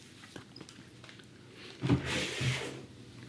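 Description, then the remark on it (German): A door is opened: a soft thump and latch click, then a brief rush of scraping, rustling movement before things settle into quiet. “Warte, ich mach schnell die Tür auf und dann sage ich das.”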